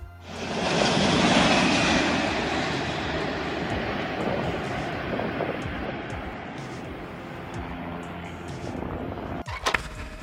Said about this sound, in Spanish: es un avión grande, un DC-10, un viejo avión que lo están habilitando como apagador de incendios.